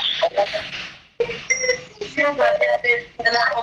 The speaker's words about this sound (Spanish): Sigue repicando el teléfono.